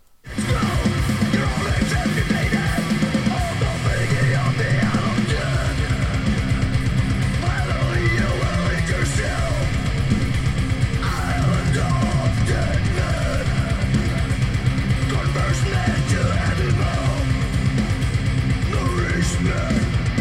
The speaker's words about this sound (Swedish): Det här är ju helt nytt band som heter …. … var ju låten